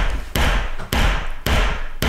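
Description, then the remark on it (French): A hammer strikes four times at a steady pace, each blow a loud, sharp impact with a brief ringing decay, with no voices. “Tout à fait, c'est un marteau.”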